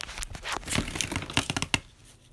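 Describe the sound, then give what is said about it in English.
A piece of paper being crumpled to be thrown away, a dense run of crackly, rustling crinkles with a few sharper snaps near the end, then it fades out. No one speaks. “And then this piece of paper, I guess I can just toss that, but it must not be important if I don't really know what it is and it's been here for like forever.”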